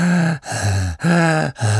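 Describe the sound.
A person imitates heavy, gasping mouth breathing: four loud, voiced breaths in and out in quick, steady rhythm, with no talking.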